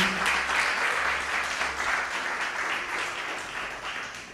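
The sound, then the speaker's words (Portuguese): A crowd applauds steadily in praise of Jesus, a dense wash of many hands clapping at once with no clear individual beats, holding at a fairly even loudness throughout with a faint low hum underneath. “Aplaudimos a Jesus.”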